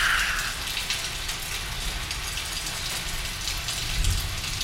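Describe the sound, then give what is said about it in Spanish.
Steady rain falls in a continuous hiss with soft patters throughout, even in level, with no voices present. “Los días de sol los días nublados y los días de lluvia.”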